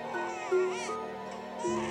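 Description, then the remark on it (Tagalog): A newborn's thin, wavering cry rises and falls in short bursts, fairly loud, with a slightly strained, bleating quality and no talking over it. “hindi ko alam kung tao o hayop yung umiiyak na nilalang sa paanan ko.”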